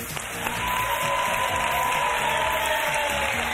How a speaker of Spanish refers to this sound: Así que este viernes le queremos dar las gracias y os pido un aplauso especial para José Francisco Salado, presidente de la Diputación de Málaga, que ha estado con nosotros y que ha hecho posible este directo en Madrid.